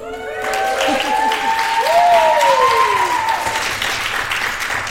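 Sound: audience applauding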